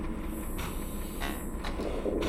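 A subway train rumbles into Weberwiese U-Bahn station, where it terminates, a steady low roar broken by periodic metallic clacks and hisses, loud, with no voices.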